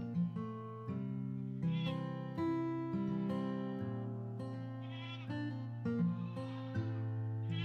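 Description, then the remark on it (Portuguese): A goat and her kids bleat repeatedly, overlapping high wavering cries and deeper calls filling the scene, with no talking. “Isso mesmo! Apareceram a cabra com seus cabritinhos.”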